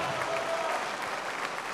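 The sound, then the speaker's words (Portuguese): An audience in São Paulo applauds in praise of God in a steady, dense wash of clapping that holds an even loudness throughout, with faint voices blended into the crowd noise. “Vai aplaudindo e vai glorificando.”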